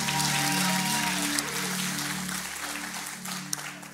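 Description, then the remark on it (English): A large crowd claps and cheers loudly and steadily for Jesus: a dense wash of applause with a sustained low musical drone underneath that gradually eases off. “All of God's people say, one more time, all of God's people say, can you make some noise for Jesus? One more time, come on.”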